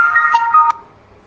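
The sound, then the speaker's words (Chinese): A short electronic phone ringtone: bright, steady synthetic tones that play for under a second, then cut off abruptly, leaving near silence. No one speaks. “因为我有个电话”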